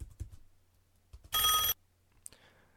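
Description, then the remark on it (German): A single short burst of a loud ringing telephone bell, cutting off abruptly, surrounded by faint clicks and quiet background with no talking. “Der Cursor steht am Anfang des Telefonklingelns und ich drücke Shift-Pfeil rechts.”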